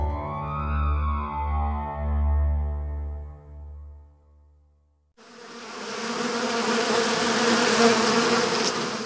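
A droning bee buzz wavers in pitch for about five seconds, then cuts to the dense, rushing hum of many honey bees swarming together, steady and loud to the end.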